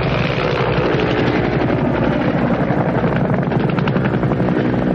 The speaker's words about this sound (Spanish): El mayor está a punto de responder, pero la conversación se ve interrumpida por un helicóptero que se acerca a la colina.